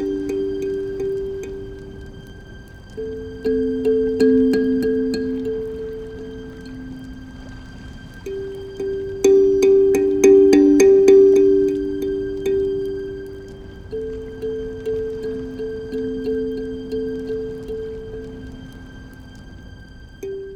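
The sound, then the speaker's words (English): A gentle kalimba melody from the opening of a video game, plucked, ringing notes rocking slowly between two low pitches, each pluck decaying into the next in a steady, lilting rhythm with no voices. “And you hear that kalimba very prominently at the very opening of the game.”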